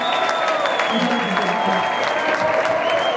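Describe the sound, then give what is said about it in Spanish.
A loud, steady wash of applause and cheering from a large crowd for a performer fills the whole moment, dense clapping with scattered shouts and a faint voice buried underneath. “Así que quiero un ruido para él que ha venido de a dar su nivel, ¿vale?”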